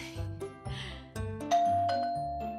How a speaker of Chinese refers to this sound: 突然门铃响起